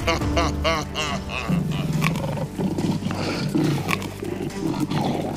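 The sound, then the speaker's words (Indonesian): A tiger in a told story, being given kue tok cakes by a mother, roars and growls loudly, opening with a wavering snarl that rolls into deep, rumbling roars lasting several seconds, with no talking. “Kue tok untuk Tuan Harimau.”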